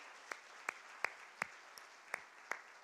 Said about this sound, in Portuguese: Quantos recebem do perdão de Deus, da misericórdia, da graça, do favor de Deus sobre suas vidas e podem dar uma melhor salva de palmas ao Senhor, nosso Deus, por isso?